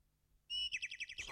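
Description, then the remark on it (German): A short, bright electronic chirp from software on an iPad confirming that the desktop was extended: a sustained high tone followed by a quick warbling trill of about five rapid pulses, clear, with no talking. “Also in dem Moment, wo es zwitschert, wisst ihr, okay, es hat funktioniert und der Desktop wurde erweitert.”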